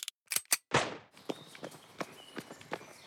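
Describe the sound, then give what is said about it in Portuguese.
A sharp starting-pistol crack rings out with a short echoing tail, preceded by a few quick clicks, then a steady patter of running footsteps follows as athletes start a race on an athletics track. “Na corrida do atletismo, os competidores têm que ficar alinhados na pista, em ponto de corrida com as duas mãos apoiadas no chão, e só pode começar a correr quando ouvirem o som do disparo.”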